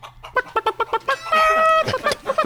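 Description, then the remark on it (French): A rooster in a video game clucks in a quick run of short, evenly spaced notes, breaks into a drawn-out, strained squawk, then clucks again. It is fairly loud, with no talking. “Donc, le coq me file aussi une information capitale”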